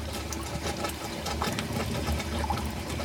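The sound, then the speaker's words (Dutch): A steady mechanical pump hum runs throughout as the well of a water infiltration system for pressure drainage on a field plot starts up, with water rushing and trickling into the well. It is continuous and moderately loud, with no one talking. “Kijk nou hoor je de put net aanslaan dit is de put eh, eh, waar, waar, het water in gaat.”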